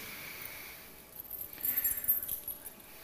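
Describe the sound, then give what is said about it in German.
Keys on a hammer-shaped keychain jingle briefly and quietly, a short burst of light metallic clinks after a moment of near silence, with no voices. “Ich weiß nicht, ob du auch so einen, einen, einen wunderbaren Schlüssel hast mit so einem Hammer-Schlüsselanhänger.”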